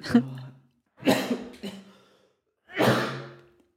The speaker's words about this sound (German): ich war, Alter, ich gerade einfach übelst Husten, ne? weil ich hatte irgendwas war hier so hin.